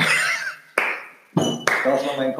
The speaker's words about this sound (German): Ganz kurzer Applaus.